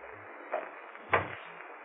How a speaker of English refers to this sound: I closed the door softly, went across to my window.